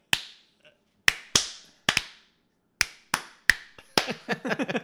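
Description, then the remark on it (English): Sharp, crisp handclaps from kids clapping along with a song, about ten of them in an uneven rhythm, some in quick pairs. Near the end, a busier burst of claps mixes with brief higher-pitched tonal sounds. “And I like the way they made the kids clap along with the song, and you could hear yeah.”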